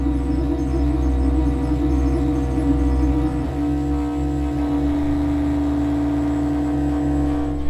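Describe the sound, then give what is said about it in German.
A steady, loud electronic drone from light sensors converting light, with a deep low hum and layered tones that shifts pitch partway through as more controls are turned up, then settles into a new sustained chord, with no voices. “Und dann sind andere Sensoren, die das Licht dann das Licht auf andere Art umsetzen, zusammen mit noch einem Sensor.”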